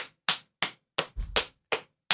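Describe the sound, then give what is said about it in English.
Around eight sharp, fleshy slaps on a belly land in an uneven rhythm, one with a deeper thud, fairly loud with short silences between them and no talking. “Thank you for the belly uh, the belly slaps”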